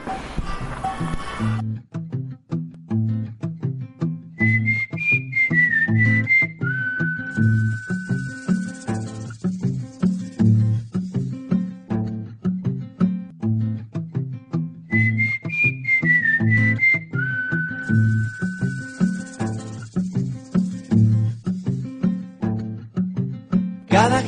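A cumbia song plays steadily, with a bouncy, repeating bass and percussion groove under a bright whistled melody that returns twice. No singing or talking is heard.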